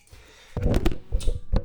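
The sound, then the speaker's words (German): After a brief quiet moment, a loud clatter of hard knocks and thuds as a camera standing upright on its edge tips over and tumbles, with a few scattered impacts trailing off over about a second. “Ja, das war die Kamera. Habt ihr gehört?”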